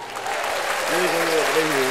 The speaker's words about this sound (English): I got I got some applause on here. Hold on.